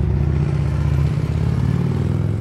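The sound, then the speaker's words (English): A motorbike engine runs loud, its deep throaty rumble holding steady with a brief shift in pitch partway through, no voices present. “Don't forget the motorbikes.”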